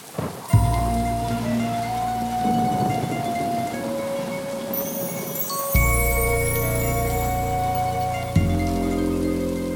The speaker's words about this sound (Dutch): De wind waait hard door de bomen rondom het grote Pietenhuis en de regen slaat tegen de ramen.